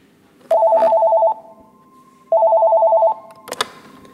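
A telephone on the Lua support line of the University of Aveiro rings twice with a steady electronic warbling trill, each ring lasting under a second with a pause between, followed by a sharp clatter and click. Fairly loud, with no talking.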